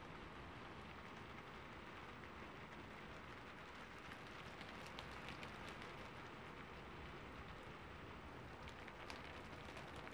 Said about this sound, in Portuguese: Era madrugada, fazia frio e estava com uma neblina no ar. As primeiras gotas de chuva começaram a cair então.